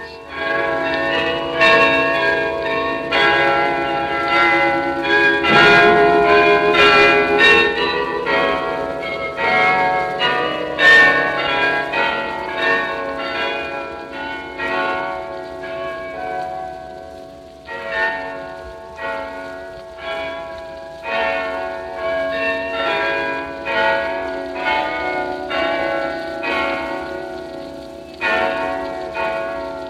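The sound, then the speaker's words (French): A cathedral carillon in Amsterdam, played by the carillonneur as a bell concert, plays a melody: many bells struck in quick succession, their bright, ringing tones overlapping and sustaining, steady and fairly loud throughout, with no voices. “nous demandons au carillonneur, pourquoi pas, de faire un concert de cloche pour nous.”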